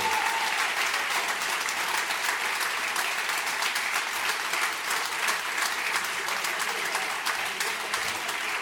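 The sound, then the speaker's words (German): A group of restaurant-chain staff, called the superstars of system gastronomy, claps steadily and densely for several seconds while posing for a group photo. The applause is sustained and fairly loud throughout, with no voices standing out. “Klatscht mal so ein bisschen, dann, dann sind die Gesichtszüge immer entspannter.”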